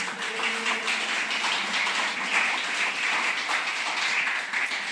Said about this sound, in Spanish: ¿Cuántos le dan un aplauso al Señor por esto?